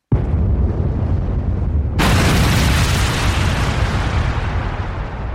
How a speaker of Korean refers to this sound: 남동부와 남서부에 건설된 원자력 발전소 두 곳이 두시간의 시차를 두고 모두 폭발해버린 것이었다.